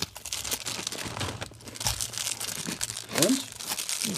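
Continuous crinkling of the outer plastic packaging as a snack wrapper is pulled open, with scattered crackles and a brief rustling burst near the end. No one speaks.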